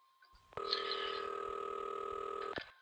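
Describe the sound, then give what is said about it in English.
A telephone line rings once as a call is placed to an office: a single steady electronic tone holding for about two seconds, then cutting off sharply. Clear, with a faint hum beneath and no voices. “Ringing Murray Hill 70093.”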